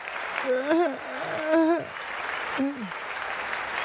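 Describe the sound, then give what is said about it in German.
A crowd applauds steadily throughout, a dense wash of clapping, while a few voices whoop and call out over it in short rising and falling shouts. “Applaus. Applaus, jawohl.”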